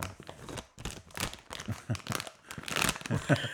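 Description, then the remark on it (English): Crackly crinkling of a plastic sweet bag as someone sneakily takes a cola bottle sweet, handled in irregular bursts of rustles and crunches for a few seconds, with no one speaking. “So I'm trying to very sneakily take a cola bottle.”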